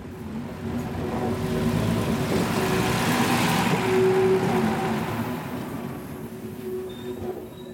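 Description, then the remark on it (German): A red Uerdinger railbus starts off slowly from Astheim station and rolls over an unguarded level crossing, its engine droning steadily with a humming tone, wheels rumbling over the track, swelling to a peak midway and easing off as it moves on. No voices. “Langsam setzt sich der rote Oerdinger Schienenbus in Bewegung und rollt über einen unbeschrankten Bahnübergang.”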